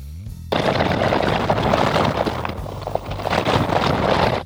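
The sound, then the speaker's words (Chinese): A full 24 hours of busy street ambience at Nanluoguxiang, time-compressed into seconds: a dense, crackling, rapid-fire wash of noise after a brief low hum, easing slightly midway during the quiet night hours before swelling loud again. “然后我还其实其他场景我也压缩了一下，你听一下这个，其实它是南锣鼓巷的声音。”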